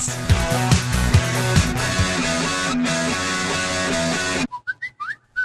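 Loud, full band music cuts off, then a short whistled jingle marking the start of an advertising break follows on its own: a few quick, bright notes sliding up and down, clear.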